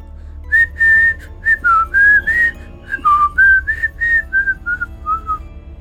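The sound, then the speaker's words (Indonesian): Someone whistles a short melody while waiting in a corridor for a consultation, a string of clear bright notes that rise and fall in a lilting rhythm, fairly loud over a low background hum. “saat menunggu di lorong dia merogoh sakunya dan mengambil satu bungkus permen untuk menghibur kebosanannya sembari dia bersiul”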